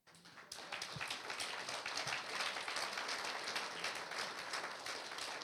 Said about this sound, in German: Wollen wir Gott einmal einen Applaus geben?